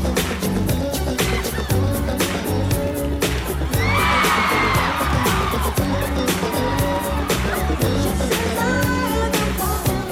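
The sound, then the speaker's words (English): A live crowd at the Motown 25th Anniversary special on CBS cheers, screams and whoops loudly over a pounding, rhythmic music performance, with applause blending into the steady beat and excited shrieks swelling midway, the applause at the end coming as the performer moonwalks. “The applause at the end is when he moonwalks.”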